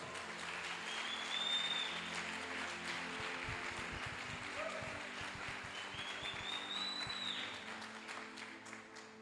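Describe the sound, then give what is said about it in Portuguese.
A church audience gives a loud round of applause to Jesus, a dense wash of many hands clapping that swells early and holds for several seconds before easing slightly, with scattered whistles rising above the crowd. “Dá um forte aplauso a Jesus.”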